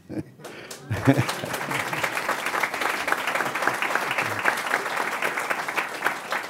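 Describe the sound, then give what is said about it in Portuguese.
An audience breaks into steady, sustained applause for Rubens Barbosa, newly a member of the Academia Paulista de Letras, after a brief pause, many hands clapping in a dense, even wash that holds at a fairly loud level to the end. “Aplaudido em cena aberta, hein, Rubens?”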